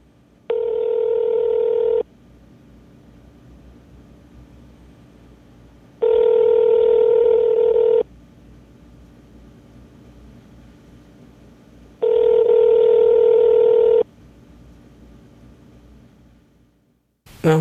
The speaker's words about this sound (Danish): tog ikke telefonen. Øh, øh, jeg, ved, jeg vidste ikke rigtigt, om jeg skulle lægge en besked. Øh, så det har jeg ikke gjort.